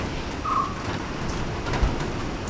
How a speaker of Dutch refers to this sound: Dat was een tinnen dak, of, of ja, een ijzeren dak. En ik zat midden in het regenseizoen daar. Dus dan daverde dat tak met die regen en dan vielen al die insecten uit dat tak. En dat was daar een lawaai, maar ik vond dat heerlijk.